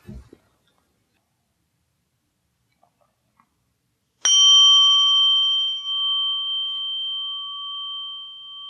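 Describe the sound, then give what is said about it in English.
A single gong strike rings out after a few seconds of near silence to mark the start of a meditation, its clear metallic tone sustaining and slowly fading over several seconds. “I'll ring the gong once here to indicate we're starting, and twice to indicate it's over.”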